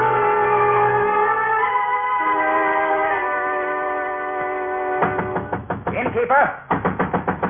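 After several seconds of sustained, humming musical tones, a rapid series of loud knocks on a door at night begins, pausing briefly before another quick burst of knocking.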